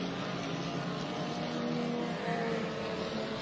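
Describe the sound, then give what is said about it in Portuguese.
Race cars, including a Volkswagen Fusca, drive on a wet track in strengthening rain with windshield wipers switched on, a steady, loud engine drone blended with broad hissing spray that holds constant throughout, with no voices. “Eles vêm trazendo aí os seus carros.”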